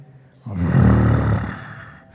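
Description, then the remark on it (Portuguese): A person imitates the engine of a red Ferrari revving, a rough, rumbling vocal roar that surges for about a second and a half, then fades out. Fairly loud. “ouve o ronco dos motores, desliga e vai pegar o, o ônibus.”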